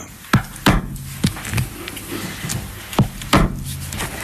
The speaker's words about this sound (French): je prépare ma couture en faisant un griffage préalable